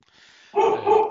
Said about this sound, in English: Uh, so I'm sorry about my dog.